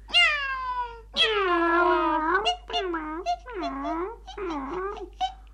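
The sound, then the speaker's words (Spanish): A cat meows repeatedly: a drawn-out meow, a longer whining one, then a quick series of shorter, rising-and-falling meows, loud and clear with no talking. “¡Qué gato más aragán!”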